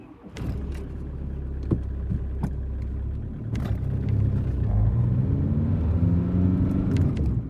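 Cars rumble past at a harbour pier at the Ems estuary in East Frisia, Germany, where cars are handled for shipping, their engines droning steadily with a low vehicle roar. Sharp clanks and knocks break through several times, like tires rolling over metal ramp joints.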